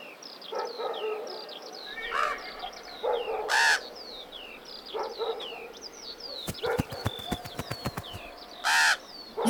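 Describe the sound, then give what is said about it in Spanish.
A great-tailed grackle calls repeatedly, mixing rising whistles and harsh squawks with a quick burst of dry, rattling clicks, with no voices present. “Y fue a buscar a la muchacha y le habló en forma de zanate.”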